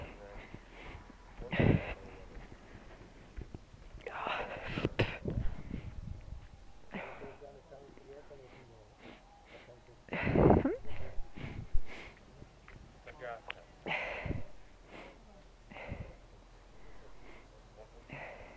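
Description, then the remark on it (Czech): Someone blows their nose into a handkerchief in several short, forceful bursts, with snorting and sniffing between blows and quieter breathy sounds in the pauses. “Smrkání, nejnáročnější činnost.”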